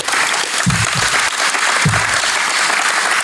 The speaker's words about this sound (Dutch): Applaus, denk ik.